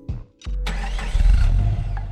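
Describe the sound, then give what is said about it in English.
A car engine cranks in two short bursts, then catches and roars to life, revving up loudly before settling into a steady, rumbling idle. “They pushed me in the car until we got past my house so my mom couldn't hear the engine.”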